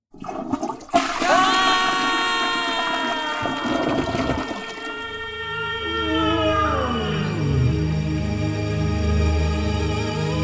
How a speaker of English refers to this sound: the water will come out with the flush of the basin and, and go into the um, toilet bowl and push us out through the pipes and down into the sewer where we get added to all of the wastewater that's coming out of the house.